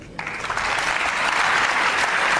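crowd, applause in parliament

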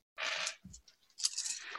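household object, dice being rolled

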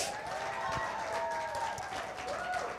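crowd, church audience clapping

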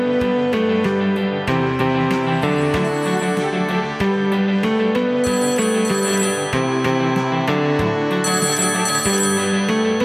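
signal or alarm, phone ringtone ringing

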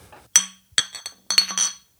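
household object, beer glasses clinking

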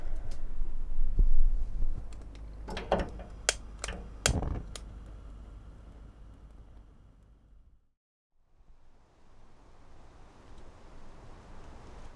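household object, kettle heating water

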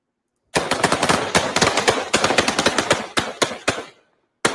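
impact, gunshots

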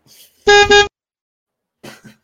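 vehicle, vehicle horn honking

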